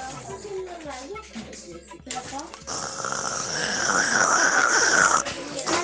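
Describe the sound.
After a few seconds of voices, a child lets out a long, loud, raspy growl imitating an angry tiger. The rough roar lasts about two and a half seconds, then cuts off.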